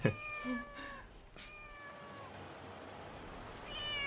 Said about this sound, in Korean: 어, 야옹이다. 어, 야옹아.